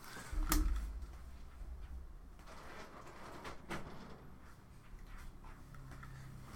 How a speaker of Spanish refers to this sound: A ver, me voy a cerrar la puerta porque estoy escuchando como un eco bien poderoso.